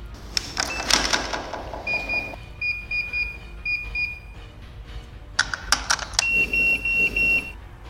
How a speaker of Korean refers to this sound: 일곱자를 다 눌렀다. 다행히도 비밀번호가 틀렸다. 살았다는 경고음이 울렸고 이제 살았다는 안도의 한숨을 내쉬는 그 순간 경고음이 들리기가 무섭게 다시 슬라이드를 올리더니 아까와는 다른 속도로 더 빠르게 비밀번호를 누르고 있었다.